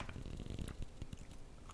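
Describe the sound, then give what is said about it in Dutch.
Crunchy bites and wet chewing on pizza, a soft irregular run of crackly mouth sounds with no talking, fairly quiet throughout. “Ik ga nog een stukje eten en dan uh, ga ik stoppen.”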